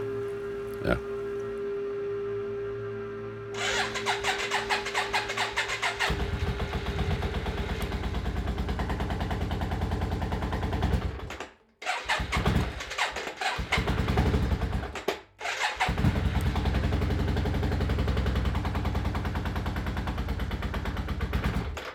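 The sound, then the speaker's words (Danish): A motorcycle engine starts on choke as the rider sits on, presses the choke down and presses the starter: a low idle tone, then a sudden burst into loud, crackling, popping running with brief cuts before it settles into a steady rough rumble. “det jeg godt kan lide ved den der lyd, det er, at når man sætter sig op, man trykker chokker ned, eller, ja, det kan du selvfølgelig høre, men, men du, når du trykker over starter der, så lige knaller lidt der, og så er der, inden den kommer der.”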